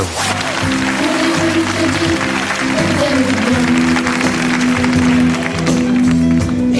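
A children's choir, les petits chanteurs d'Anières, sings a song, voices holding steady sustained notes together at a full, even loudness throughout, over a bright, busy backing.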